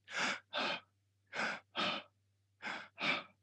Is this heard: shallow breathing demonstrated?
yes